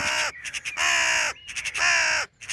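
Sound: birds cawing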